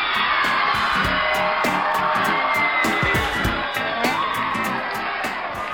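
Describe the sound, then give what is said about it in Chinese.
A loud, sustained wash of audience applause and cheering welcoming a female guest to a show, with dense clapping and scattered shouts and whoops rising over the steady roar throughout. “让我们热烈的掌声欢迎她。”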